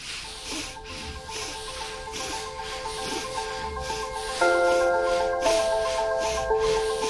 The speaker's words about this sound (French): Ici, on va respirer seulement par la narine droite, notre narine de soleil. Inspirez cette fois avec la respiration de feu, Bastrika.